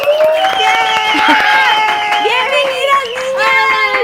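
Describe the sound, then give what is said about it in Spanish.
An audience on the show Pinky Promise applauds steadily for about four seconds to welcome three TikTok creator guests, the clapping mixed with high whooping cheers and excited voices that keep the sound loud and unbroken throughout. “Un aplauso, por favor.”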